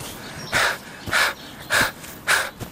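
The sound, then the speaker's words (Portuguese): Heavy panting breaths of a messenger entering, four of them in a quick, steady rhythm, breathy with short pauses between, like someone out of breath. No talking. “Entra um mensageiro ofegante.”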